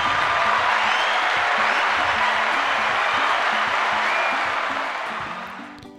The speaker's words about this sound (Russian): Это тебе аплодисменты от наших зрителей.